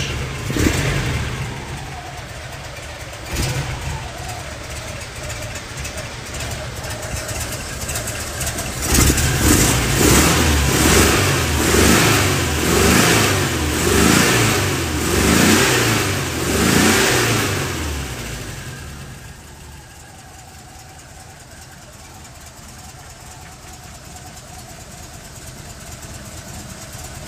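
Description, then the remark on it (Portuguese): A car's 60-horsepower flat engine idles, then revs up in several pulsing bursts before dropping back to a steady, low, stable idle. No one speaks. “Mas observe o quanto o funcionamento, o quanto o ruído é baixo, o funcionamento é baixo.”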